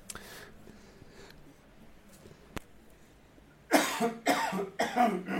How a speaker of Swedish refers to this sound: liten hostattack där, men det får man ha när det är podcast, ja.